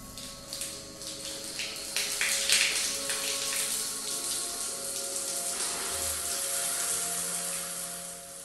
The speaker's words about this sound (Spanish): El agua tibia resbalándole por el cuerpo le causó cierto confort